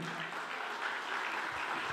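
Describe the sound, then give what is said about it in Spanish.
A crowd claps steadily throughout, a dense, even patter of many hands with no pauses, fairly loud and continuous, swelling slightly at the very end. “Vamos, den un aplauso fuerte”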